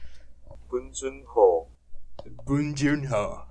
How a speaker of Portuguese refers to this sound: É, vamos ver como que a gente pronuncia o nome do diretor do Parasita. Peraí. Aqui, isso aqui é o barulho do meu computador que ele vai falar.